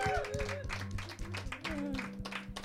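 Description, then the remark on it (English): An audience applauds steadily for a few seconds for Lost Voice Guy, a dense wash of clapping with some whoops and cheering voices mixed in, sustained throughout. “ladies and gentlemen, big round of applause, please, for Lost Voice Guy.”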